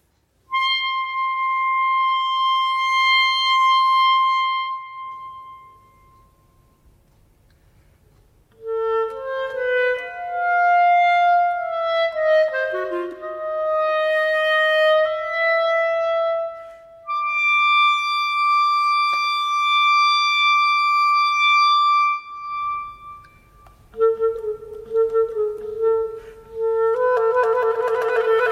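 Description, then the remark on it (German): Long, loud sustained tones with a bright, siren-like buzz hold steady for several seconds, then shift slowly into new pitches and layered chords, with a brief drop to near-silence in between. “Wenn wir da so einen lang angezogenen Ton hören, der verändert sich ja, oder?”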